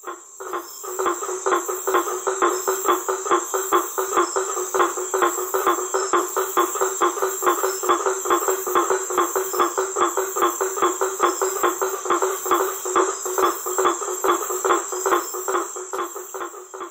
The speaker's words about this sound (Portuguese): Esse daí é o sapo ferreiro, conhecido também como Ipsi Boas faber. Olha aí. Que na verdade é uma perereca, não é um sapo.